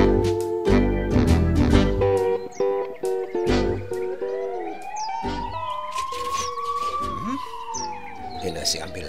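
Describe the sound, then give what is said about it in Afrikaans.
An ambulance siren wails in a long, slow rising and falling sweep as an ambulance races in through a gate. It is fairly loud and follows a cluttered opening with muffled voices, while birds chirp intermittently in the background. “ambulans nou by die buske se hek ingejaag kom.”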